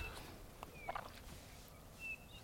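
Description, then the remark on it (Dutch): Two Eurasian bullfinches give a few soft, mournful piping whistles, thin and spaced apart, over a steady outdoor background hiss. “goudvink. Hier, gaat hij achter nog één. Hoor je dat een Beetje melancholische fluittoontje.”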